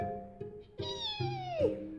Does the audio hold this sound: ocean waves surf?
no